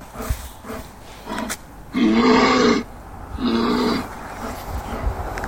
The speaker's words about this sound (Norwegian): For det her er uh, lyden av en bjørn. Ja, rovdyr. Eh. Eller rovdyr, ja. Og, og, den eh, skal da gjøre at reinsdyreren raskt eh, holder seg unna?